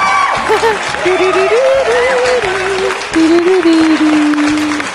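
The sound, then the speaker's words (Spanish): Loud, steady applause fills all five seconds, a dense wash of clapping with a sustained wavering tone, like a cheer or whistle, running through it. No one speaks. “Aplausos para el niño del anexo.”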